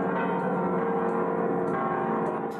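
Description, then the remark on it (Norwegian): The bells of the enormous cathedral in Mexico City ring out for Pope Francis in a dense, continuous peal, several bells overlapping with sustained metallic tones and steady loudness throughout, with no voices. “Fra Mexico bys enorme katedral ringte i går klokkene for pave Frans.”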